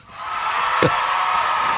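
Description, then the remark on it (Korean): A cheering sound effect played on a radio program: a crowd cheers and shouts in a steady, loud roar that builds quickly and holds throughout, with one sharp knock or clap cutting through midway. “예, 오늘 환호성 소리가 보물 소리입니다.”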